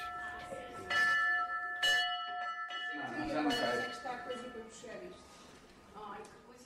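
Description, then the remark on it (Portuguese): A hand bell in the pediatric ward of the IPO hospital in Porto rings with a few quick clangs early on, its bright tone lingering and slowly fading as people talk and cheer over it. “A pediatria do IPO do Porto tem um sino que toca a esperança.”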